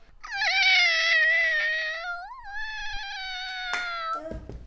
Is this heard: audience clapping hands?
no